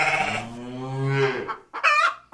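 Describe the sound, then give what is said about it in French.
Several farm animals, a hen, a sheep and a cow, call out at once, a loud crowing, bleating jumble of overlapping voices, ending with a short second burst after a brief pause. “Promis répondent les animaux en chœur.”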